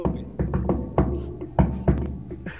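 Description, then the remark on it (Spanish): Sharp knocks on a hard surface, given as a greeting, with a firm pair of raps standing out among several softer thumps over a low, muffled background. “Sí, ahora te escucho y te saludo con dos golpes.”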